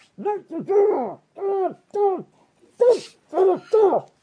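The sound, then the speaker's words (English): A voice mimics muffled, gruff commanding speech heard from behind a door: a run of short, forceful wordless syllables in uneven bursts with brief pauses, fairly loud, a couple of them breathy and rough. “So you kind of like push your ear up to it, and you can hear some sort of gruff voices, sort of like almost like commanding something um, you, you can, it's almost, it's all very muffled.”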